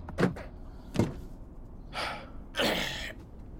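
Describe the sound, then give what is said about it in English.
Two sharp clunks of a car door handle being tugged, followed by two longer, breathy rushes as the door is worked open, with no talking. “Door. Oh, this fucking thing.”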